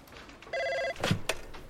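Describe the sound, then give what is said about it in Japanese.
A single short burst of an electronic desk extension telephone ring, a steady buzzing tone lasting under half a second, followed by a few soft clicks and handling noises; the extension phone of Nintendo president Yamauchi at Nintendo headquarters in Kyoto, January 1997. “任天堂の山内博社長の内線電話が鳴った。”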